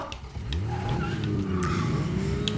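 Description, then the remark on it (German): A video game car engine revs and accelerates steadily, its pitch climbing in smooth sweeps, with brief sharp clicks and bursts layered over the continuous motor drone. “Digga, wie wenig Damage hält das Auto denn aus?”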